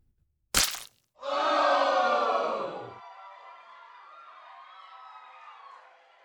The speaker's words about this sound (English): His body fell to the stage floor. I covered my eyes. I couldn't look. But I heard it.